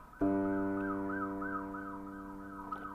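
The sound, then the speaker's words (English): An ambulance siren wails steadily in a repeating rising-and-falling pattern as ambulances go by outside a window, with a low engine rumble beneath, fairly loud and sustained throughout. “As I hear the ambulances outside my window, you probably can't hear them out there in TV land, but I can.”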